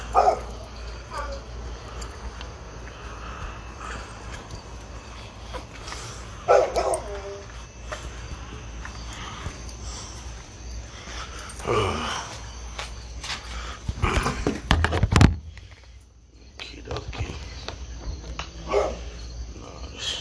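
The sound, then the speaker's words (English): A dog barks repeatedly, sharp yips and woofs scattered across an outdoor night scene, shortly after rain, with the moon behind clouds, a steady chorus of crickets and a low background hum. “Man, this dog gonna shut the fuck up.”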